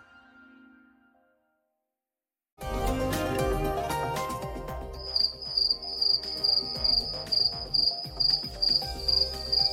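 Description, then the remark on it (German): After a brief quiet hum, a dense chorus of crickets in a meadow on a mild summer evening bursts in loudly, with one high, steady chirping trill pulsing in a regular rhythm over the layered insect buzz. “Jawohl, so klingen Sommerabende. Eine Wiese, milde Luft, letzte Sonnenstrahlen und Grillen.”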